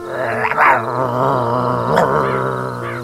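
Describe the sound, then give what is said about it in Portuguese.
A dog growls low and steadily for several seconds, a continuous rumbling snarl with a couple of sharper rises in intensity, no voices present. “Calma, cachorro, calma.”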